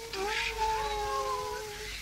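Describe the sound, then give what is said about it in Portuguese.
Several cats meow and caterwaul together in long, overlapping, wavering yowls that hold steadily for about two seconds, fairly loud, with no talking. “Doutor, eis na sua presença o famoso conjunto dos gatos cantantes.”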